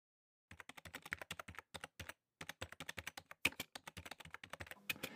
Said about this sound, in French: Elle pianota sur le clavier et fit signe à Mike qui enclencha le générateur.